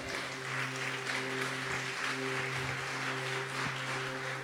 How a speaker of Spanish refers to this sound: Vamos, a ese aplauso a él.